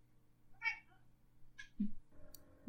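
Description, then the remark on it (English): A cat meows a couple of times, short bright cries separated by pauses, with a low steady hum and faint background noise underneath. “If you hear meows on my track, that's that's what's going on.”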